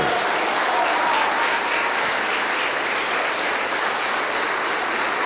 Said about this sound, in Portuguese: E vamos aplaudir ao Senhor Jesus por cada vida que está chegando.